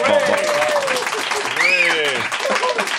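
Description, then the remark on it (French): An audience in the Espace Pedro applauds steadily for about three seconds, a dense wash of clapping with voices calling out and a brief rising whistle partway through. “Et euh, les gens aussi dans l'espace Pedro, vous avez du plaisir par applaudissement moyen.”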